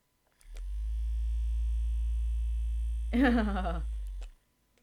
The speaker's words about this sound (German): Die Auflösung, es ist ein Massage-Tool.